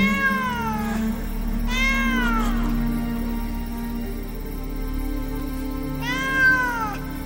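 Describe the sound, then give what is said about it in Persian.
A cat named Nazi, in heat for the first time, lets out three long, drawn-out yowls, wavering, rising then falling, with pauses between them over a steady low hum; no one speaks. “نازی ما هم برای اولین بار شور عشق به کلش زد و با ای که همه تن او را به تکان میانداخت ناله های می کشید”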